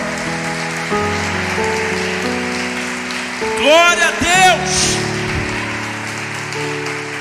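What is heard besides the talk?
audience applauding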